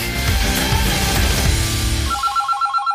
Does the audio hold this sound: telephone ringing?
yes